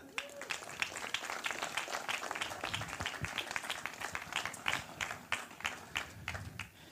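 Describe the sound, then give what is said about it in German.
An audience applauds steadily as a person is called up to the front, many hands clapping in a dense, sustained patter with sharper individual claps standing out, lasting several seconds at moderate loudness. “Applaus bitte!”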